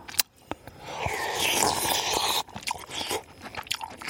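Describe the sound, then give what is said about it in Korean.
Wet chewing of solid pieces from a soup, something somewhat chewy, with crunchy bites and soft squelching mastication repeating irregularly over a few seconds, heard alone without talking. “오, 뭐, 자, 뭐, 그 건더기 씹는 소리.”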